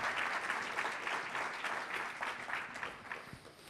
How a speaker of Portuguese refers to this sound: médico, patologista e investigador, chamo também a palco e peço também o vosso aplauso.